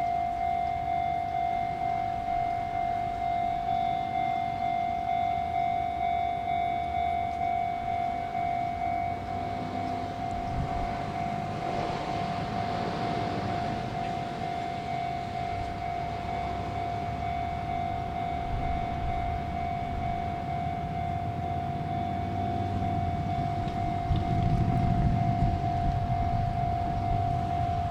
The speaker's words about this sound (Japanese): 聞こえましたかこちらが踏切の音ですね。